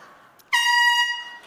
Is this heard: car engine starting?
no